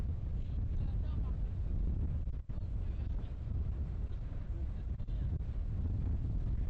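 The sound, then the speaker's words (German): A boat on a two-hour trip out across water, with a steady, loud low rumble and wind buffeting the microphone, continuous throughout with a couple of brief dips. “Erst zwei Stunden mit dem Boot raus, dann zu Fuß weitergehen.”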